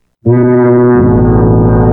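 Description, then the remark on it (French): An ocean liner's deep, loud horn blasts suddenly after a brief silence and holds one steady, rich low tone, with no voices. “C'est le bruit du paquebot de la séquence de chansons avec le mot à l'air.”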